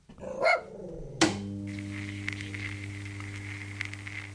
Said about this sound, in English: the first Royal International phone call they finished the historic conversation by holding a corgi up to the receiver and pinching it to make her bark.